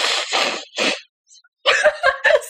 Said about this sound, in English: Sorry, just blowing my nose. that was so loud. we'll keep that in there.